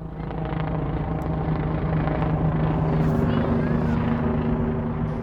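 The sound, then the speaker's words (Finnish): Many ambulance helicopters fly over Stockholm in the last days of March, a steady thrum: a loud, continuous low rotor drone with a constant pitched hum that holds at the same level throughout, without pauses or changes. “Kuuntelin ambulanssihelikoptereita Tukholman taivaalla. Niitä lensi paljon.”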